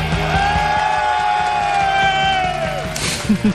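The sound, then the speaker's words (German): A crowd cheers and whoops continuously, a loud sustained roar of many voices with a high held yell drawn out over it, ending in a few sharper shouts. “Lass die Leute jubeln.”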